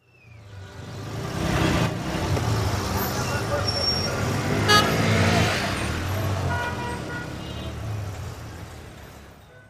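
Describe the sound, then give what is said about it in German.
A steady rumble of congested street traffic in Kabul, idling engines and passing vehicles, with a couple of short car horn toots cutting through and indistinct voices in the background. “Es sollte ähm, ein, ein, Geräusch sein eines, eines Staus in, in Kabul.”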